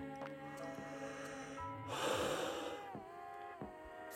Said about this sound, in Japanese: 本当に目閉じるだけで寝れそうなぐらい今眠たくて。自分のイメージのあくびにつられてるぐらいなんですけど